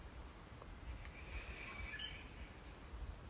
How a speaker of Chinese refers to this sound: 还有鸟叫声